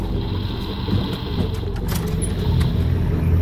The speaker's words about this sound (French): Un hélicoptère, vous le voyez Oui, on le voit d'ici, il vole pas il est en train de survoler ma cabane. Il se dirige droit vers la forêt.